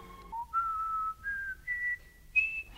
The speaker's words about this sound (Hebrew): שרקתי חרש את שריקת חפש אוכל.